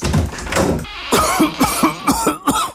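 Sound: coughing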